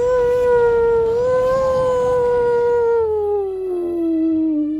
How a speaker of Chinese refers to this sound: 这妖风是越来越厉害，似乎是在催促我呢。